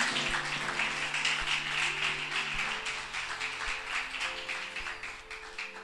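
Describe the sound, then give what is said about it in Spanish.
A church audience applauds Christ the King during a sermon for several seconds, a dense, even wash of clapping hands, while low sustained musical tones hum quietly underneath. “Dale ese aplauso al rey.”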